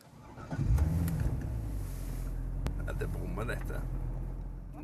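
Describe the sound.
A car engine rumbles steadily from inside the vehicle as it drives, with a swell of low revving early on, a sharp click midway, and indistinct voices murmuring underneath.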